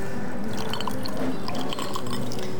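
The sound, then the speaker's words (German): Cola pours steadily into a glass, a continuous gurgle with fizzy crackles and small splashes running throughout, no voices. “Komm, ich gebe dir noch ein bisschen was von meiner Cola ab.”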